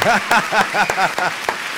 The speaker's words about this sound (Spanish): Me encanta, me encanta mucho. Te aplaudo yo.